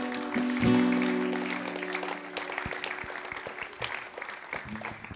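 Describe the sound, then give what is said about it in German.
Applause from an audience for the band, steady clapping with a sustained tonal note ringing over the start, gradually thinning toward the end. “Komm, gebt doch mal der Band einen herzlichen Applaus.”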